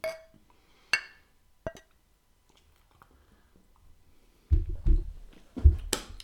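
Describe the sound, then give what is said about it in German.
Glasses clink together in a toast, three bright ringing taps spaced about a second apart, followed after a pause by muffled handling and sipping noises. “Prost. Prost. Prost.”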